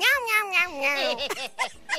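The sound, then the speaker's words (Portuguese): Two cats meow together in long, wavering, drawn-out calls that rise and fall almost in unison, fairly loud, ending in a few shorter yowls. “E o pior é que quem mora em casa já sabe que gato fica assim mesmo, né?”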